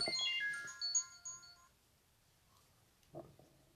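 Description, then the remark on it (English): A phone ringtone plays a bright melodic chime for under two seconds before cutting off abruptly, followed by quiet and a brief soft thump. “Okay, hold on. I had to turn my phone off.”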